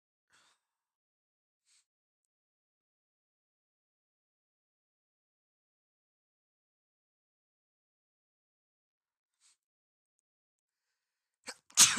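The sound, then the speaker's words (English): After a long stretch of near silence with a few faint ticks, one loud, sharp sneeze bursts out at the very end. “sorry for sneezing.”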